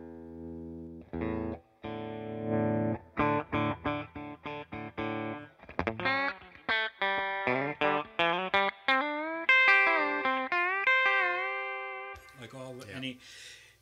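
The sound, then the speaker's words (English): An electric guitar with two humbuckers and a toggle switch plays alone using its bass roll-off, starting with a few sustained strummed chords, then moving into a quick run of picked single notes and bends with a slightly thinner tone. “And then the other secret weapon, I think, in it is the bass roll-off.”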